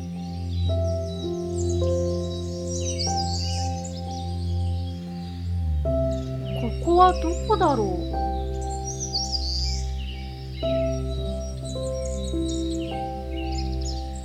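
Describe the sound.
Birds chirp and twitter in scattered bursts throughout, light, layered over a steady, sustained musical backing, while a voice briefly speaks.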